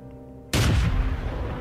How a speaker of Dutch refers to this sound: Het lawaai dat die kanonade veroorzaakt is voor zijn gevoelige oren werkelijk ondraaglijk. Bij elke luide knal grijpt hij naar zijn oren om ze af te schermen.